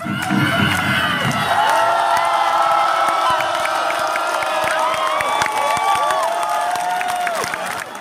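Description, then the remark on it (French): A large concert crowd, fired up by a band's performance with two dancers, cheers and whoops continuously at high energy, with shrill rising shouts layered over a dense roar, sustained and loud throughout. “pour …, la suite ne semble être qu'une formalité, le public est chauffé à blanc.”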